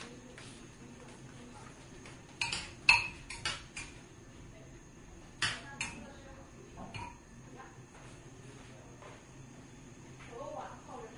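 Kitchen utensils and dishes clink and clatter in short bursts of sharp metallic and ceramic taps, with quieter stretches between, over a steady low background hum while cooking.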